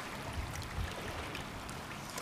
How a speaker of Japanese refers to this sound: 強い波に覆われてお尻が濡れりそうになった綺麗な貝殻流されちゃった